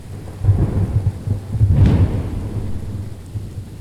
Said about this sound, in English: A storm is a symphony. It opens with a tiny overture of wind, raindrops, and distant lightning, building into movements and climaxes of hard rain and rumbling thunder,